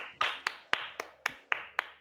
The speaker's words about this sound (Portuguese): Palmas.